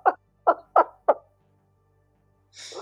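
A parrot lets out four gruff, growling squawks in quick, evenly spaced succession, like a metal vocalist, then a harsher, rasping screech starts right at the end. Loud and close, with no talking.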